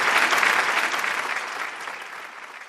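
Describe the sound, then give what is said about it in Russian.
Steady applause from a group of people, a dense patter of many hands clapping that stays fairly loud throughout and eases slightly toward the end, with no voices over it. “А вообще, если наберешь высокую оценку, то тебе должны аплодировать.”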